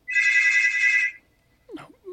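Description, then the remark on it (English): A phone ringtone for an incoming call trills loudly for about a second, a bright warbling electronic ring, then cuts off and a brief burst of voices follows. “little phone call.”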